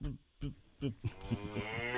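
A cow lets out a long, drawn-out, loud moo, filling the second half after some brief voice-like sounds at the start.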